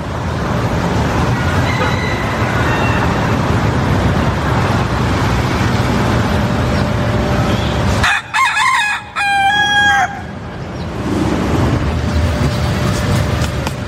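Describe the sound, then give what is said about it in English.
A rooster crows once, loud, in a strained, rising cock-a-doodle-doo lasting about two seconds over steady background noise like traffic. “Can you eat a rooster?”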